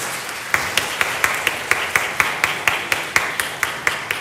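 An audience applauds steadily to give all the glory to God, a dense wash of many hands with a sharp, even beat of louder claps running through it, as if much of the crowd is clapping in time.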